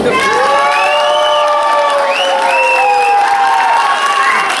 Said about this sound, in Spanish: Se fue por aplauso. Aplauso por la concursante número uno.